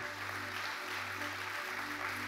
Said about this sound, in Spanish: Dele un aplauso al Rey de Reyes y Señor de Señores.